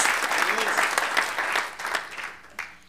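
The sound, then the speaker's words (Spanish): A crowd claps loudly and steadily in applause for the Lord, the applause dense and sustained before tapering off near the end, with a voice faintly audible underneath. “Gloria a Dios, démosle un aplauso al Señor.”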